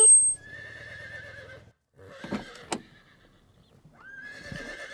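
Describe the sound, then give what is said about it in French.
A horse whinnies loudly, its shaky high cry wavering, with snorts and a brief clatter in the middle before a second rising neigh at the end. It is the whinny of divisional police commissioner Joe Louise Jumper in a parking lot. “À peine garés, ils reconnaissent le hennissement de la commissaire divisionnaire, Joe Louise Jumper.”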